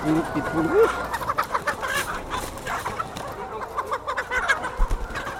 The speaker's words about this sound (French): je connais pas chaque poule par cœur, mais je vois on voit l'ensemble du bâtiment, si, ça, si elles sont bien ou pas.